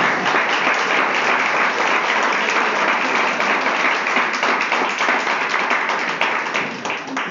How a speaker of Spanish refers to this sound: ¿Qué tal si le damos un aplauso a Dios por la familia?